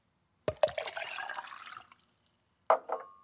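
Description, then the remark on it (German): Water splashes steadily into a glass for over a second, fairly loud, then stops; a moment later a short clink rings out as the glass is set down. “Lieber ein Wasser. Okay, Moment.”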